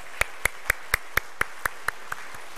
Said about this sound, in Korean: 오늘 성가대 찬양 너무너무 감사했는데 아 제가 깜빡 잊었습니다. 제가 올라온 우리 성가대에서 박수한다는 것을 아, 나이가 들면 이런 것 같아요. 우리 성가대 우리 박수 한번 다시 한번 드리고 우리 말씀 한번 성가대 감사합니다.